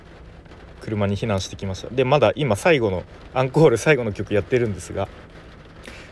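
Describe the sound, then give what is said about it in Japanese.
Heavy rain from a sudden downpour drums steadily on the roof of a car parked in a festival parking lot, a dense patter of rapid impacts running under a man speaking throughout. “まあ、ちょっとこうそれを聞きながら収録してるって感じですねちょっと雨の音も入ってしまってるかもしれませんが、えー、ご容赦ください”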